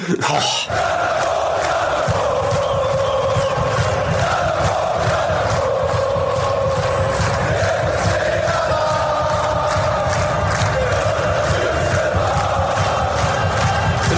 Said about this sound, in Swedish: Yes! Får jag höra klacken?